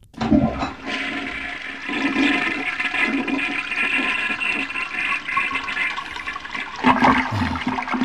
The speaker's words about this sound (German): Okay, haben wir noch was für die Klospülung?